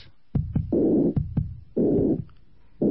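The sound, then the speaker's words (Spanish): Aortic stenosis heart murmur: a harsh, rough, steady whooshing fills the gap between the first and second heart sounds, which are barely audible, repeating in a regular cycle with no talking. “Ahí se oye un ruido áspero, rugoso, constante, entre el primero y el segundo.”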